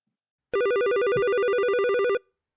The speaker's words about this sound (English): I love the phone ringing.